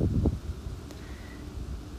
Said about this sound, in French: J'enregistre d'ailleurs ce podcast à l'extérieur. Il est possible que vous puissiez entendre un léger vent dans les feuilles des arbres, parce que les feuilles des arbres sont encore présentes.